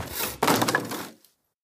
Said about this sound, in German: Und so machen sich die Matrosen an die Arbeit. Am Abend hört man das eifrige Hämmern und das dumpfe Knarzen der Spieren, die zu einer riesigen Plattform zusammengebunden werden.